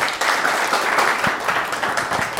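A crowd applauds steadily, a dense wash of many hands clapping at once, fairly loud and continuous with no voices over it.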